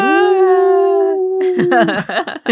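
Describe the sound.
A person imitates a wolf howl, holding one long, steady, loud note for over a second before breaking into choppy laughter and breathy vocal sounds.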